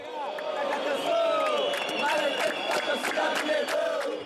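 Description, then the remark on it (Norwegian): A large crowd of angry Flamengo football fans shouts and chants in unison for lower ticket prices during a match at the Maracanã stadium in Rio de Janeiro, Brazil, a loud, continuous roar of many voices with rising and falling cries throughout. “Sett ned billettprisene, roper sinte tilhengere av Rio-klubben Flamengo under en kamp på legendariske Maracana stadion tidligere i år.”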